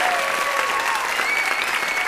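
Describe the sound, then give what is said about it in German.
Steady applause from a live audience, a dense wash of many hands clapping at an even, sustained level for the whole couple of seconds, with no voices standing out. “Applaus für Herrn.”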